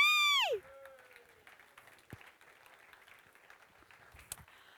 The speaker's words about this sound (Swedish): Okej, då får ni klappa så här. Klapp, klapp, klapp, klapp, klapp, klapp.